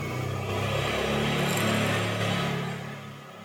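A motorcycle engine revs steadily outside for a few seconds, a loud droning rumble that swells slightly in the middle and then fades a little at the end. No one speaks.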